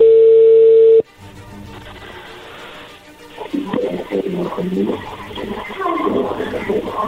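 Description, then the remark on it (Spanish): A loud, steady telephone tone as a call is placed holds for about a second and cuts off abruptly, followed by a quieter line hiss and muffled, indistinct voices. “Perfecto, vamos a marcarle en este momento a ver qué sucede.”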